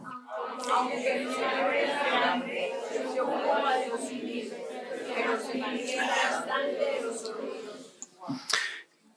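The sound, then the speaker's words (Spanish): A large group of voices reads Psalm 50:23 aloud together in Spanish in a steady, overlapping murmur for several seconds, then trails off with a few scattered voices at the end. “¿Me ayudan a leerlo, por favor? Con voz fuerte a la una, a las dos y a las tres.”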